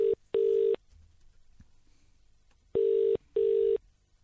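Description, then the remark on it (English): A British telephone ringtone heard down the line while dialing a number in New York City, its steady tone pulsing in the classic double-ring pattern, two quick pairs of rings separated by a pause, fairly loud and with no talking. “Why's it got a British ringtone? I'm dialing New York City.”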